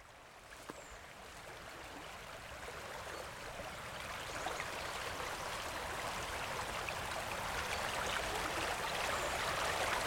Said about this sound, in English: This is the song of the River Usk in Spate, flowing fast and deep.